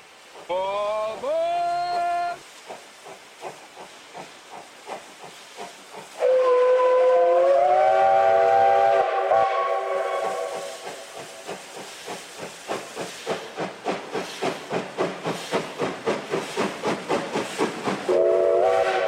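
A steam locomotive gives a loud whistle blast, then another longer whistle, followed by rhythmic chuffing and hissing steam that gradually quickens as the train picks up speed, ending with a short whistle.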